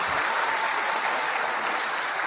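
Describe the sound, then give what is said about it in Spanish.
An audience at a convention claps steadily, a dense wash of many hands with no distinct individual claps, holding an even, fairly loud level throughout without any voices standing out. “Vamos a darle un fuerte aplauso a esta gente.”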